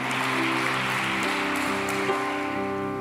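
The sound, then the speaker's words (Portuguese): A crowd applauds steadily to praise God, a dense wash of clapping that holds at an even level for a few seconds, with sustained keyboard chords ringing underneath. “Se é você, pode aplaudir o Senhor.”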